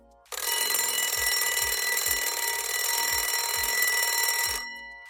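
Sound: alarm clock ringing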